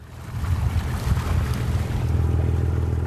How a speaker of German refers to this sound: Langsam verlässt die MS Merta den Hafen von Lyngschele. Der gehört zur Region Bohuslän, die sich von Göteborg bis an die norwegische Grenze ausdehnt.